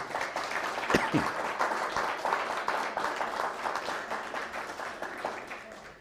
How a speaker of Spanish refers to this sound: Así que un fuerte aplauso a ellos, por favor, a ustedes.